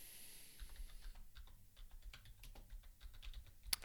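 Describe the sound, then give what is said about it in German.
Rapid clacking of a loud computer keyboard, keys struck in quick irregular bursts, with one sharper louder key hit near the end and no voices. “Ich habe eine sehr laute Tastatur, es tut mir leid.”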